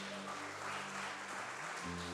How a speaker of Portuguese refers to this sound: Aleluia! Aplauda Jesus bem alto aí, queridos!